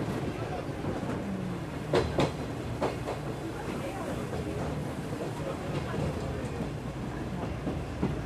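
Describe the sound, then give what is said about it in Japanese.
A passenger train carriage rolls slowly along the rails with a steady low rumble and occasional sharp clacks of the wheels over rail joints, while voices talk over it. “なんか街並みも何て言うんだろうなゆっくり進むこう客車から見ているとちょっと違う景色にも見えますよね。”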